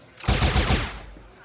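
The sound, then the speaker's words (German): A quick volley of several gunshots cracks out in rapid succession, loud, lasting under a second before fading into a brief echoing tail. No voices are heard. “Und dann habt ihr plötzlich einen Moment, in denen mehrere Schüsse fallen.”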